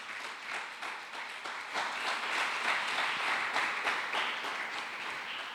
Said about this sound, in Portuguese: Você pode dar um aplauso a Deus por isso?